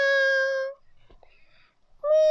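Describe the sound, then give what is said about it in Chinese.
A voice imitates a cat's meow, a steady, fairly high-pitched drawn-out call, followed by a short quiet pause with faint sounds and then the start of a second meow. “喵， 猫咪， 猫咪说：“要不要去打个盹呢？”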